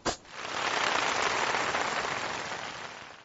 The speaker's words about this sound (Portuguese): É difícil, é difícil bater palma pro microfone.